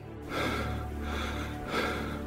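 A sharp, deep gasping breath drawn in close to the listener, followed by a second shorter heave of breath, airy and fairly loud, with no talking.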